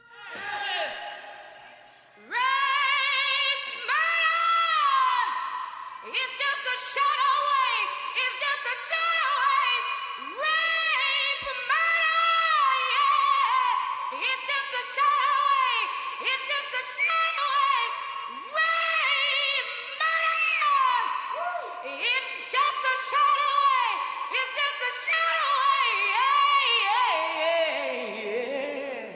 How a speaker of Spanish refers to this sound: vamos a escuchar primero a … con … en el estribillo de …